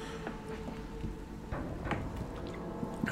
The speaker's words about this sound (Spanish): permito darle otro traguito a mi agüita.